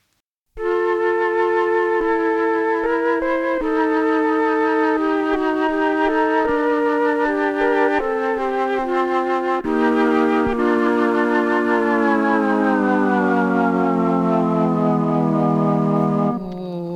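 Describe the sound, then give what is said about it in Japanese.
A flute sample played on a sampler plays a short melody of steady, sustained notes, loud and unaccompanied, then its pitch sweeps smoothly and slowly downward over the last few seconds, done with the sampler's pitch-adjustment knob, before stopping. “あとはフルートですねじゃあもう一個じゃあ、うん、フルート聞いてみますか”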